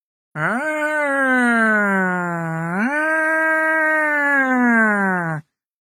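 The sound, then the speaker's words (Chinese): A voice imitates a fire engine siren as the fire engine arrives in a children's story, with two long, loud wails, each swooping up in pitch and then sliding slowly down, lasting about five seconds with no other sounds. “消防车来了。”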